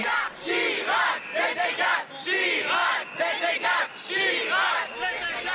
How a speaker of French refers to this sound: Les slogans que vous entendez en sont issus. Lionel a filmé les manifestations, les rassemblements.